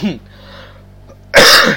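A person who still has a cough lets out a loud, harsh cough, coming after a short stretch of near silence that follows a brief vocal sound.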